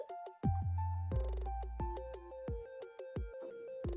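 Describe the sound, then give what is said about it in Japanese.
A short, bright sound-effect jingle plays from an iPhone: a quick run of bouncy synth notes over punchy, booming bass hits, loud and steady for several seconds with no one talking. “このさ、ポン出しのさ、音ってさ、iPhone なんか出せるよね。音、音源、ポン出し音源。”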